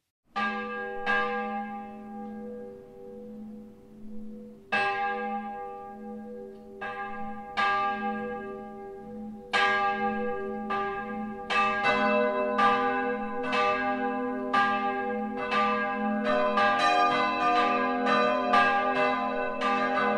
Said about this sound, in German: Salve Regina. In diesem Motiv erklingen die vier Glocken der Rostaler Pfarrkirche, wenn sie zusammenläuten.